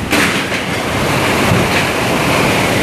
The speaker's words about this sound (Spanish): Ahora mismo estoy enchumbado del agua y los vientos fuertísimos y estamos escuchando cómo se está llevando la cortina de zinc de que se encuentra al final de la terraza.